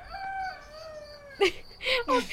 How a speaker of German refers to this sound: Also, wir entschuldigen uns im Vorhinein schon dafür, dass wir vielleicht jetzt für die ganze restliche Podcast-Folge einen Hahn haben.